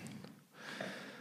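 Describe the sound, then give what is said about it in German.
Airy breathing from asthmatic lungs of a person currently using an asthma spray, with a raspy, wheezy edge: a breath out followed by a longer breath with a faint whistling tone, no talking over it. “Das ist meine Lunge. Ich bin ja, nehme ja gerade Asperspray.”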